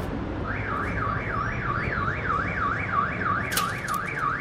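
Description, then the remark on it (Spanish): The alarm of a car parked on the street wails in a rapid rising-and-falling siren pattern, repeating steadily over a constant low rumble of street noise, loud, with no one talking. “Tan cerca que activó la alarma de un carro que estaba estacionado aquí en la calle.”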